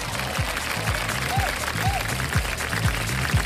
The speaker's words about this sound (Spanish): Gracias a todos. Aplausos, por favor, aplausos a eso. Gracias, muy amable.